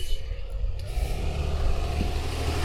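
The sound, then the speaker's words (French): A small truck rumbles past outside, its low engine drone steady and fairly loud for a few seconds, with a faint hiss of traffic noise around it. “Alors, petit camion ici.”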